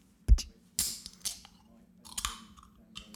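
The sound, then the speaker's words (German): A Red Bull energy drink can cracks open in front of a microphone: a sharp metallic click, then short bursts of fizzing hiss and crackle as the tab pulls back, with no talking. “Oh, ein Red Bull. Ja. Kannst du jetzt so schön vor dem Mikrofon aufmachen, bitte?”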